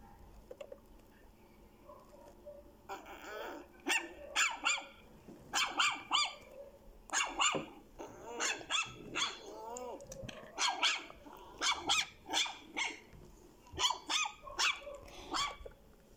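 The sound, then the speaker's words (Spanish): Several pet dogs bark repeatedly at night, sharp overlapping yaps coming in bursts with brief pauses, a low hum underneath and no voices. “En la noche antes de ir a descansar, escucho el sonido de mis perritos.”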